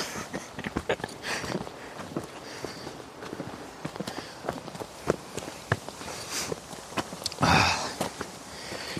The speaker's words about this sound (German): dass man anfängt so zu schnaufen. Ja, ja, das ist natürlich unangenehm. Ja. Das möchte man nicht hören bei sich selber.